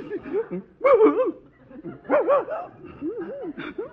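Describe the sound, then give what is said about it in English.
An upset St. Bernard dog named Herman lets out a series of wavering whimpers and short yelping barks, coming in several bursts with brief pauses between them. “This St. Bernard is as intelligent as I am”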